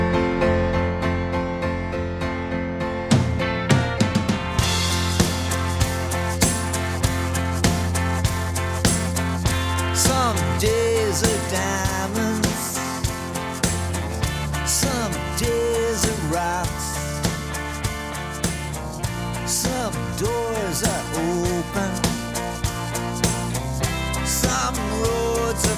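A rock song plays loud and steady throughout, with a driving drum beat, full band backing and a sung lead vocal weaving over the top, with no talking.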